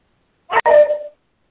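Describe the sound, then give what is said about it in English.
A small female dog gives a single short, high bark with a quick catch in the middle and a trailing whine-like tail, barking at the neighbors while guarding her turf, alone with no talking. “And so sorry for my little furry friend that's um, barking at the neighbors.”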